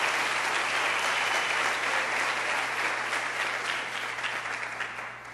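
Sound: audience applauding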